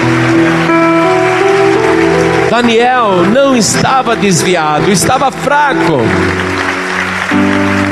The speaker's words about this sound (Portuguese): Isso já passou, isso já acabou. O Senhor te confortou. Vamos aplaudir muito o Senhor, vamos aplaudir bastante.